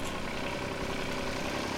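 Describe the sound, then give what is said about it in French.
A tractor engine, pulling a trailer, rumbles steadily as it approaches, a continuous low, rough drone that holds a constant loudness throughout with no voices present. “Peu après, il entendit un bruit de moteur arriver vers lui.”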